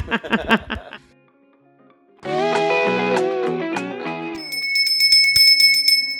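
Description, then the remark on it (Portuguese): A bread vendor's bicycle bell rings out with bright, rapid metallic trills near the end, following a short burst of choppy sounds and a dense, loud swell of tones. “Olha o pão!”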